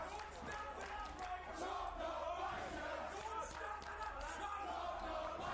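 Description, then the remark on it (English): A large crowd chants in unison at a wrestling event, a loud, rhythmic, repeated phrase shouted by many voices over a dense wash of arena noise, steady throughout. “Sounds like people are saying chops a wanker.”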